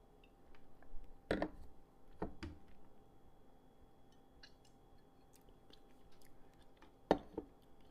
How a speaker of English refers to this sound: So I'm gonna dive right in and take a first sip.